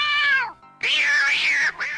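A young, large cat meows twice, a short falling cry followed after a brief pause by a longer, louder, drawn-out wail that tails off with a quick extra note.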